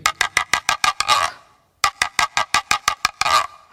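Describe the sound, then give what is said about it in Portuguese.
A handmade scraping instrument imitates a free-range (caipira) hen's clucking: two phrases of quick, evenly spaced rasping clucks, each ending in a longer, brighter squawk, with a short pause between them. “Agora vai ser a galinha caipira.”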